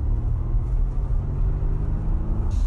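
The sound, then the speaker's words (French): The four-cylinder engine of a Volvo XC90 SUV hums steadily while driving, a smooth low rumble with a faint rise near the end and no voices. “Il y a une rondeur, euh, une souplesse aussi dans la conduite de ce 4 cylindres.”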